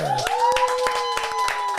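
Scattered applause from a small live audience at Paco's Place, irregular claps over a sustained, held cheer or whoop that rises in pitch and then steadies throughout.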